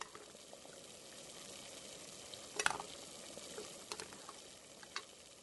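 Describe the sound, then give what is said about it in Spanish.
Whisking chocolate melting in a small pot set inside a larger pot of boiling water: a soft, steady bubbling hiss with a few brief utensil clicks and scrapes, fairly quiet, with no voices. “Vamos batiendo para evitar que el chocolate se pegue y se queme y en minutos ya estará líquido y listo para nuestro postre.”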